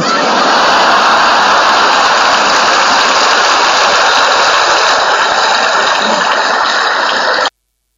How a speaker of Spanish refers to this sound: Esto no es agua, esto es una bomba para sacar agua.